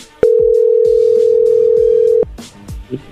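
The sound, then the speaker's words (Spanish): A telephone ringing tone as a number is redialed after the other person hung up: one loud, steady, low-pitched hum for about two seconds, then cuts off, leaving faint clicks and a brief soft beep on the line. “Ya colgó Choco. A ver, márcale de nuevo.”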